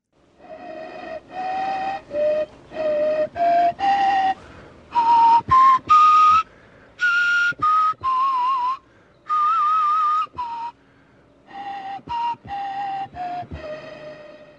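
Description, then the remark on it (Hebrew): An ancient flute made from an eagle bone, with four holes giving five notes, plays breathily a slow melody of short, separate notes stepping up and down in a few distinct pitches, clear, with brief pauses between phrases and no voices. “נשמע חליל בן זמננו, זה נכון?”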